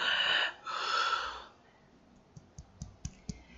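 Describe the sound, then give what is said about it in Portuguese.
A voice imitates the breathing of a scuba regulator on a diving cylinder: two loud, hissing breaths, one short and one longer, followed by five quiet, evenly spaced clicks. “E aí o som do cilindro, assim, o som fica muito amplificado quando você tá dentro da água, né?”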